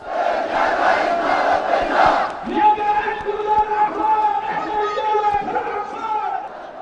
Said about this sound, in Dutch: was er meteen een demonstratie van honderdduizenden Jemenieten in de hoofdstad Sanaa, die allemaal daar hun instemming kwamen betuigen met het standpunt van de Houthis.